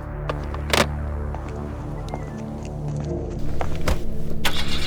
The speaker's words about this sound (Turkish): Emektar arabam güçlük çıkarmadan çalışıyor.